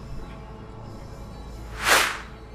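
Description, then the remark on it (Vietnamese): A single sharp whoosh of an arrow shot at a crocodile cutting through the air, swelling quickly and fading near the end, set against a quiet low background rumble. “Phút một tiếng Mũi tên của ai đó bắn ra Cắm phập vô giữa họng con sấu”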